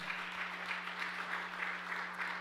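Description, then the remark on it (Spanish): An audience applauds loudly, a dense, steady wash of many hands clapping continuously with no gaps, accompanied by a low, constant hum underneath. “Vamos, del otro aplauso fuerte.”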